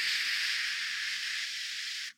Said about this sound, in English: For our younger view- viewers, for our younger listeners, that sound is dial up. that sound is internet. Technically, it's still happening, just at much faster paces.